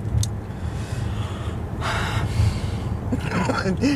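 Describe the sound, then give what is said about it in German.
Loud, heavy breathing, with several long breathy exhales and a gasp-like intake, over a steady low background rumble. “Atme nicht so laut.”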